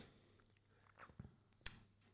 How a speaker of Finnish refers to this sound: Oli just hörppäämässä kahvia. Menikö väärään kurkkuun?